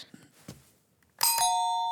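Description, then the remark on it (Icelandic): A two-note ding-dong doorbell chime rings out loud, its bright tones sustaining and slowly fading, after a few soft faint taps and rustles. “Syngjandi fallegt ding-dong”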